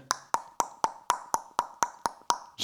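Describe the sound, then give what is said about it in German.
A voice mimics a car's turn signal with about ten quick, evenly spaced mouth clicks, fairly loud, ticking at a brisk steady pace with no talking over them. “Ja, wobei ich echt wenig blinke, weil ich hasse das Geräusch vom Blinker.”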